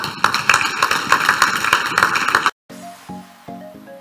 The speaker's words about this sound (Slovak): Takže ja ďakujem obidvom hosťom, ktorí nám ste vlastne ukázali, že či je to malá firma, či je to veľká firma, dá sa a stačí, a stačí chcieť, tak im teda môžeme zatleskať.